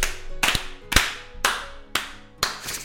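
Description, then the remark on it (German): Three sharp hand claps in a steady, even rhythm, each a bright crisp smack with a quick decay. No voices are heard over them. “Wenn wir noch dreimal klatschen.”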